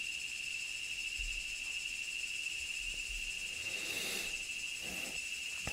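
Cicadas drone steadily outdoors, a continuous high-pitched buzzing that holds constant throughout, with faint low rumbles and a brief swell of broader noise near the end.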